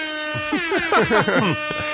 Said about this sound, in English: no, that just needed an air horn.